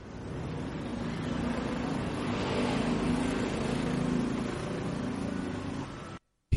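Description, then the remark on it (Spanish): A loud, steady roar of heavy road traffic with a deep engine rumble swells as a dusty double-trailer truck rushes past within two meters on Thailand's National Route 4 highway, then the sound cuts off abruptly near the end. “Me adelantan camiones con doble tren de carga, polvorientos y sin miramientos en su conducción.”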